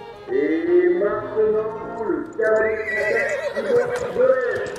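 A horse neighs loudly, a long quavering whinny that wavers up and down in pitch for several seconds, with faint clopping underneath.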